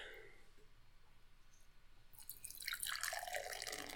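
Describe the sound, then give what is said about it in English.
Beer is poured gently into a glass, starting faintly and swelling after a couple of seconds into a steady, fizzy gurgle of liquid splashing and foaming, with no talking. “You pour the beer gently into the glass.”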